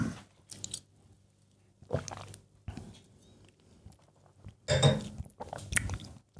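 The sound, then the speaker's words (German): Someone takes a sip of water from a glass, with a handful of short, wet mouth and swallowing noises spaced by quiet pauses and no talking. “Auf die Geschichte erstmal einen Schluck Wasser.”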